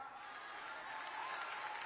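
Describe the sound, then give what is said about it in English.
Faint, scattered clapping from a crowd, a soft, thin patter of hands that stays fairly even for about two seconds with no voices over it. “And you see how many weak claps I got?”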